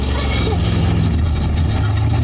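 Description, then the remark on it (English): A stunt car's engine idles with a steady low rumble and faint mechanical hum, continuous and fairly loud throughout, with no talking over it. “He's in a stunt car.”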